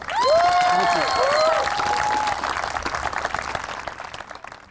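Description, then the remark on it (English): A crowd bursts into loud applause and cheering for coach Dante Scarnecchia (Coach Scar), with a few shrill rising whistles at the start. The dense clapping carries on steadily, then gradually thins and fades. “Let's give it up to Coach Scar.”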